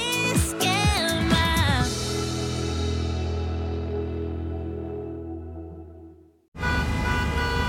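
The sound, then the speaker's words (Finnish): Loud, overlapping car horns honk in a quick jumble in a morning traffic jam, then one long blaring tone holds and slowly fades before busy traffic noise returns. “Tööt, tööt ja brum brum.”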